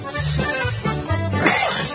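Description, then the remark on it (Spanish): A single sharp sneeze bursts out in the middle of ongoing talk, sudden and fairly loud, with a man's voice speaking before and after it. “Bueno Este estornudez, Dicen que cuando uno estornuda, porque es así realmente.”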